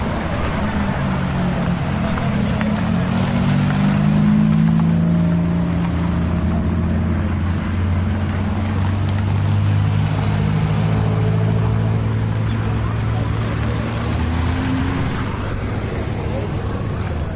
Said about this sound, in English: That's the Enzo. In fact, I'm just going to record the sound of these cars. I don't know, 20 something Ferraris rolling by on the gravel. A bit of atmosphere.